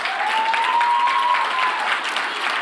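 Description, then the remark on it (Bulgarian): A crowd applauds steadily, a dense wash of hand claps at an even level throughout, with a faint rising whistle-like tone gliding beneath the clapping. “Той е смисъла на вашето ръкопляскане в момента.”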